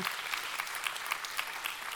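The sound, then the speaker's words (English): An audience breaks into steady applause, a dense wash of many hands clapping at an even level, with a few sharper claps standing out at a loose, rapid rhythm. “Come on, you can clap that up.”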